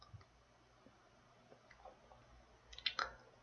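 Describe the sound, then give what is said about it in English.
A computer mouse clicks twice in quick succession, crisp, clicking on an article about why iRobot stock declined, after a stretch of near silence with faint low background hum. No one speaks. “And I'm understanding right now, I just clicked on article right now to understand why did the stock decline?”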